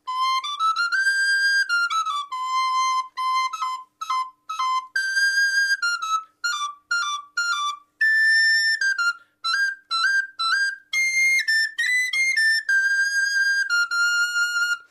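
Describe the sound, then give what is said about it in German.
A very small recorder (Blockflöte), one of the highest-pitched sizes of recorder, plays a lively run of high, piercing notes. Some notes are held and some are short and detached, with brief gaps between phrases and no voices. “Also es ist eine Blockflöte und sie ist eben ein besonders kleines Instrument, es ist auch eines der höchsten Instrumente, was es bei Blockflöten gibt.”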